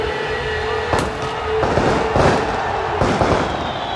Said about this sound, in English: Fireworks are done. It's time to get the World Cup final underway.